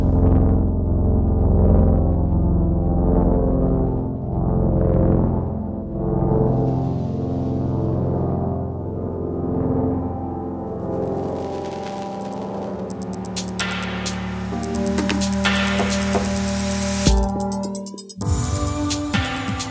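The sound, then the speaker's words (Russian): Sonified light pulsations of delta Scuti stars, hundreds of light-years away: scientists model the overtones of the stars' light pulsation and turn them into sound. Dense, layered humming tones swell and fade in slow waves, then turn brighter and noisier before cutting off abruptly near the end. No voices. “так ученые моделируют обертона световой пульсации, превращая их в звуковую.”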